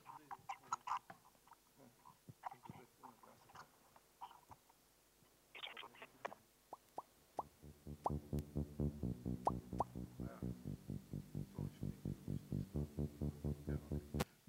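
A garbled, scrambled hiss from an encrypted recording of a fan, starting as scattered clicks and bursts, then settling into a loud, rapid rhythmic pulsing with a buzzy, warbling texture. No one speaks.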